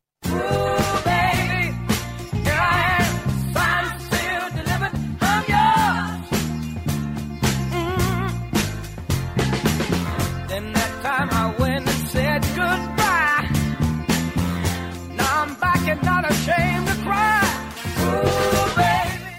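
An upbeat pop-soul song plays steadily at full volume, with a driving beat, bass line, horns and a lively lead vocal singing throughout, no talking over it.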